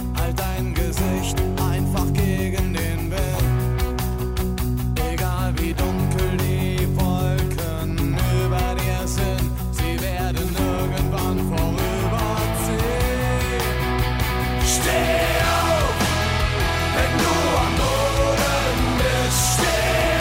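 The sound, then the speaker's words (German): A loud, full-band pop song with German lyrics plays steadily throughout, with a singing voice weaving melodic lines over driving bass and drums, growing more vocally expressive toward the end. “wann ich den Song zum letzten Mal ähm, gehört habe, am Samstagabend.”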